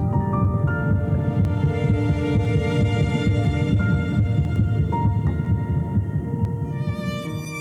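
A fetal heartbeat pulses rapidly and steadily, a loud, muffled whooshing throb that continues throughout, with a faint tonal hum layered above it and no voices.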